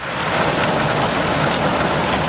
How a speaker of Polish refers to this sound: Nie szykują się na deszcz, nawet jak zbierają się chmury i słychać grzmoty.